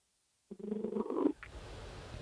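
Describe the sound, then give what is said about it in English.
A cat lying on a person's lap purrs in a brief, rough, rumbling burst lasting under a second, then fades into a low, steady background hiss. No one speaks. “That's my cat on my lap.”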